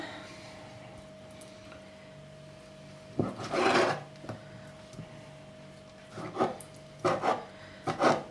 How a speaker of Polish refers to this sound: A teraz sama zajmę się pokrojeniem mozzarelli wcześniej odsączonej. Kroję ją też na takie mniej więcej kawałki, jak wcześniej pomidor.